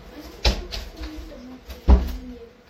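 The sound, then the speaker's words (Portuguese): A door is pushed shut by a young boy with a solid thud, followed a moment later by a second knock as it settles, with faint indistinct background sounds in between. “Fecha a porta.”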